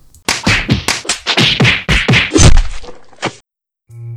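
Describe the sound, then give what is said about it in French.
A rapid series of hard blunt whacks, about a dozen loud thwacking impacts in quick succession, like a baseball bat striking repeatedly, followed by a brief pause and a low hum. “Quand elle entend ça, la femme prend la batte de baseball qui se trouve dans l'armoire de la chambre, rentre dans la salle de bain.”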